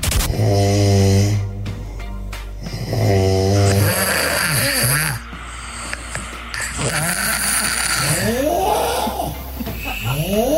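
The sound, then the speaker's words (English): A compilation of recorded snores from people in Adelaide, including a two-year-old and a dog: loud, drawn-out rumbling snores with a buzzing, almost bleating tone, then shorter raspy, wheezing breaths. No one talks. “oh God, that is a little compilation of what people are putting up with every night here in Adelaide.”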